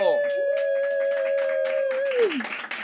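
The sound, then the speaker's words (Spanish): An audience claps for guest Sofía Castro in a steady patter while a single loud, sustained whistle or whoop rides over it for about two seconds, sliding down in pitch at the end. “Y lo único que ve disponible es Sofía Castro, un aplauso.”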